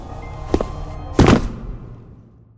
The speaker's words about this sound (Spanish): y ese hombre se cuadra, pega un taconazo que retumbó en toda la habitación.